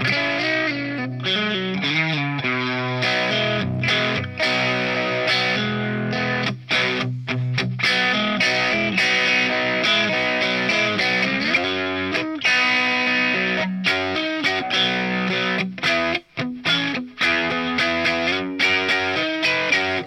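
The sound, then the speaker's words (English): A loud, distorted electric guitar riff in open G tuning, using many open strings, ringing chords repeated in a steady, chopping rhythm with brief stops between phrases, playing without any voices. “I mean that's an amazing riff.”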